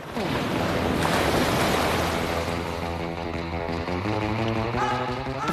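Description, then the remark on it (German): Steady, rushing surf washes continuously against the shore, with gentle tonal music playing over the constant roar of the breaking waves, which are typical shallow-water waves. “Landungswellen sind typische Flachwasserwellen.”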